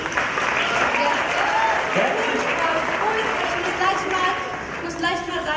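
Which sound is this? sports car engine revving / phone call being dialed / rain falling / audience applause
audience applause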